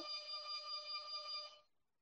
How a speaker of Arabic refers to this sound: الجرس بيرن فلازم اقوم اشوف فيه ايه